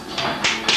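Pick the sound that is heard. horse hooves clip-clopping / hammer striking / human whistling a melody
hammer striking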